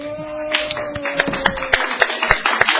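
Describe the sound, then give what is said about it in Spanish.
A group of people applauding, with dense, irregular claps of varying sharpness rising and falling at moderate loudness over a faint steady hum, and no voices. “No sé por qué me aplauden. Hay mucha gente aplaudiendo.”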